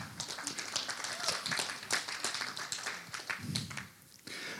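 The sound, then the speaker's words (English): An audience clapping for themselves for supporting work with MAF, a dense, steady patter of many hands lasting several seconds before briefly thinning out near the end, with a faint murmur of voices underneath. “So, well, yeah, yeah, give yourselves a clap.”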